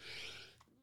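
A single sharp sneeze, a short burst of breathy, hissing noise that cuts off quickly. It sounds fairly quiet, with no talking around it.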